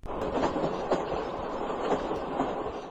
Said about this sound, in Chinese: 搭上了一辆载满了士兵、粮草向东方前进的火车。